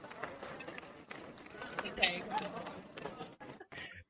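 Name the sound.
clapping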